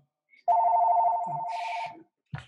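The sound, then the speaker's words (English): A telephone rings from a spam call with a loud, rapid warbling trill lasting about a second and a half, then stops abruptly before a brief voice begins. “No, it was just one of those fake phone calls that we get today.”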